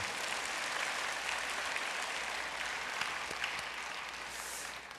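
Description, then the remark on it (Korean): Sustained applause from a large church audience for the worship team, choir, handbell group, orchestra and nanta drumming team after worship and praise, a dense, even wash of clapping that holds steady for the full five seconds with no voices standing out. “우리 격려의 박수 부탁을 드리겠습니다.”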